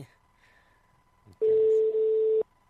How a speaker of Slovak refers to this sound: Ideme ho vytočiť. E, telefonicky dúfam, že nie inak.